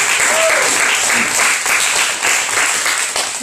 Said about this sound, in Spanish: Alegre sea, aplauda, gritos!